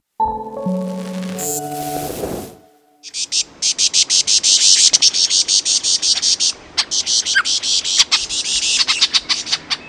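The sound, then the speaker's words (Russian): After a short tonal opening, a male lyrebird mimics a frightened bird flock: loud, dense, rapid chattering alarm calls pour out in fast pulsing bursts, continuous. “Вы слышите, как самец лирохвоста имитирует голоса стаи испуганных птиц.”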